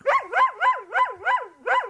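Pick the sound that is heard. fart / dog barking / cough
dog barking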